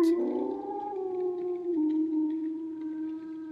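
A single long wolf howl, a sustained tonal wail that rises slightly at the start, then holds steady and slowly drops in pitch, clear with no voices present.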